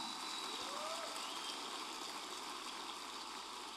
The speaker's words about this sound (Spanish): Ahora dar el mejor aplauso que le hayas dado al Señor en mucho tiempo.